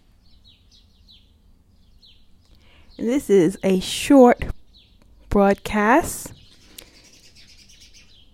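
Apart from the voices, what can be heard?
birds tweeting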